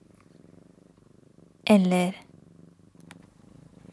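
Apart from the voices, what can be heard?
cat purring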